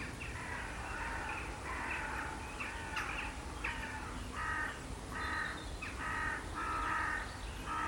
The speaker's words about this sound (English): I'm watching them, their black shapes going across the sky. I do love to watch a corvid if you want a bird with lots of character.